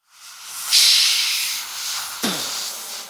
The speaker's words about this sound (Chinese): 拉布拉多警长取出专用的灭火器，对着起火点喷了过去。幸亏他们来得及时，大火很快被熄灭了。